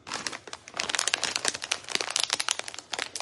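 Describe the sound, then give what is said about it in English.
Continuous crinkling of a plastic snack bag being opened, fairly loud, with rapid irregular crackles and rustles for about three seconds and no talking. “You will have a tremendous amount of snacks, and she might be opening them while you're trying to sleep, and you'll just hear plastic just.”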